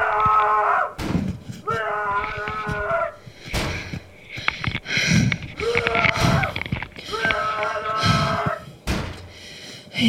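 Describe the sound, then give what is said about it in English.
Heavy thuds of someone banging on a hotel room door at 2:37 in the morning, coming in uneven bursts, mixed with loud, strained shouting and wailing voices throughout. “I'm in my hotel room and woke up to someone banging on the door and shouting my name.”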